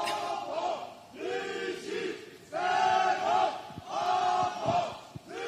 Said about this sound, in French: Alors là, il y, a, en même temps quelque chose que je n'arrive pas à comprendre. Parce qu'il y a des gens qui hurlent.